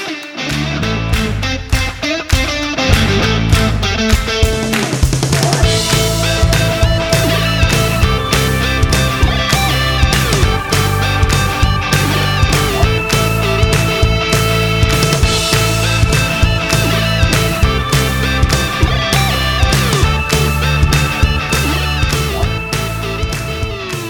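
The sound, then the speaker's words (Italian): An upbeat theme jingle plays alone at full volume, with a steady driving beat, bright sustained synth notes and a punchy rhythmic groove that continues evenly throughout, no voices present. “Senza ulteriori introduzioni vi lascio l'episodio, ci sentiamo dopo la sigla.”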